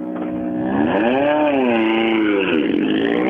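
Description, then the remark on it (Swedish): A loud, steady engine revs up and down, its pitch rising, falling and climbing again in smooth sweeps, with no talking over it; the engine's exhaust manifold was repaired the week before. “Men det låter som att grenröret är fixat sedan förra veckan.”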